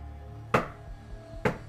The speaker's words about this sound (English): Two knocks, heavier than the first. He gets up, opens the door, and no one is there.